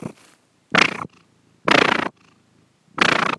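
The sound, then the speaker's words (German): A domestic cat purrs in three loud, rough bursts about a second apart, with quieter rumbling breaths in between. “Hier schnurrt sie.”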